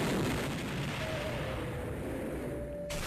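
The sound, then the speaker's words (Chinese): A dense, unbroken roar of cannon and musket gunfire as Spanish soldiers charge into a square on Pizarro's signal to attack, heavy low rumbling blasts mixed with sharp crackling shots, loud and sustained for the whole stretch with no voices. “早已埋伏好的西班牙士兵啊，冲向广场，震耳欲聋的炮声，还有尖锐的火枪声响了起来，广场上是一片混乱。”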